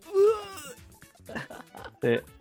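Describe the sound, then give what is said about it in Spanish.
A person in the background lets out a loud, drawn-out yell like He-Man, with a strained, wailing quality, followed by a couple of shorter vocal bursts. “es que sí grita como He-Man.”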